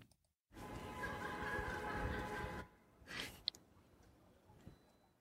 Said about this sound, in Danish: Det er det lyden af åen, Åboulevarden i Aarhus en fredag aften, som plejer det godt nok ikke at lyde her. Der er næsten mennesketomt. Der sidder nogle enkelte mennesker ved bordene rundt omkring her